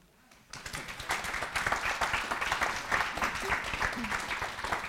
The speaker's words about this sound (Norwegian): En applaus for det her.